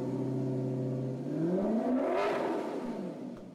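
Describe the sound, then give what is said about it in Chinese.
A sedan's engine idles with a steady low hum, then revs up, its pitch climbing and swelling loudly as it pulls away toward a pre-booked hotel before easing off. “做完这一切之后，他才打开 GPS，发动轿车，朝已经预定好的酒店驶去。”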